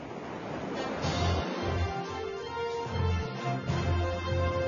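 Sea waves wash in a steady, broad rushing hiss that swells and ebbs gently every second or two. No voices are present.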